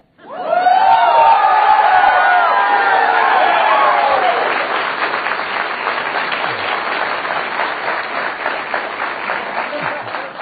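At a speech by Rand at GW University, an audience erupts in loud cheering and whooping after he says "bullshit" about giving up liberty for surveillance, settling into sustained, steady applause, dense clapping continuing at high volume for about ten seconds with shouts fading after the first few seconds.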